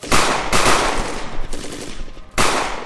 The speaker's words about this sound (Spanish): Vienen disparos cruzados de un lado a otro.